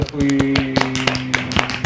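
A handful of sharp hand claps land at an uneven, unhurried rhythm, each a crisp bright slap, over a steady low humming tone that runs underneath throughout.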